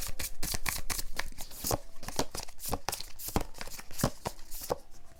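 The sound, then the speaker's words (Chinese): Tarot cards being shuffled and drawn during a tarot reading: a steady run of crisp, papery flicks and slaps, fast and irregular, with sharp snaps standing out at moderate loudness and no talking. “好，我们先来抽验证，我要帮你看你心里面的那一个他是什么样子的。”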